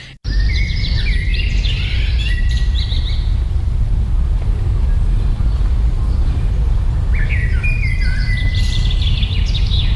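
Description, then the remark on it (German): A blackbird sings two separate fluting, warbling phrases in a forest, one near the start and another near the end, over a steady low rumble of outdoor background noise. “Habe dort einen ähm, wunderbaren Vogel, einen Amsel, Gruß aufgenommen”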